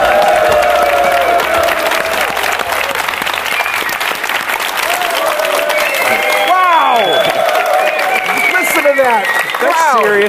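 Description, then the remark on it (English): A large crowd at a live .NET Rocks show at Tech Ed Europe in Barcelona applauds steadily for about ten seconds, dense clapping mixed with whoops and cheers, while voices call out and rising and falling shouts rise above the noise. “Listen to that crowd”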